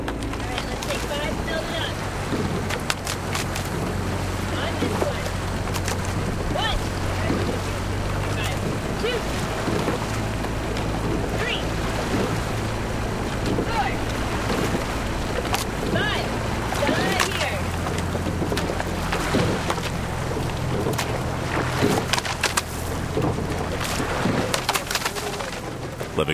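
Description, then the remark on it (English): Long, pointed rowing shells race up and down the Charles River in Boston in summer: rhythmic wooden knocks and splashes of oars over a steady low motor drone, with indistinct shouting voices and occasional birds in the open air. “Dennis Foley captured the sounds of these long and pointed shellboats racing up and down the banks of the Charles River”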